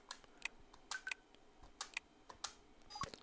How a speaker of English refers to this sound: and I've just typed in my PIN number, and I'm now at the desktop or home screen of my iPhone.